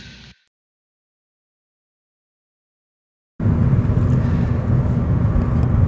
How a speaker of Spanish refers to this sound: Este es un podcast especial que estoy grabando en un coche en la carretera al lado de dos personas muy especiales.